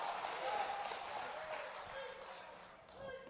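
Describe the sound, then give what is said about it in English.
An audience claps their hands together for the Lord in a dense, sustained burst of applause during a church service, steady throughout and rising slightly near the end, with scattered voices and cheers mixed into the crowd noise. “Give the Lord a hand clap.”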